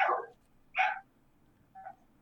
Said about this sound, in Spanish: ¿Quién tiene un perro que está ladrando ahí?